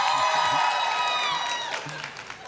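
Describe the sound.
A crowd cheers in a burst of overlapping high-pitched whoops and shouts over a steady roar of voices and some clapping, loud at first and then gradually fading.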